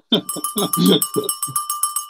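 A bell, the Boris Bell, rings in quick, evenly spaced strikes, bright, continuing for about two seconds; a voice sounds over the first half before the bell carries on alone.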